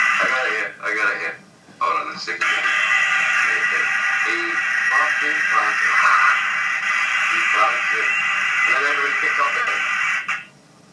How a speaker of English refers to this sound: just hear static noise on that.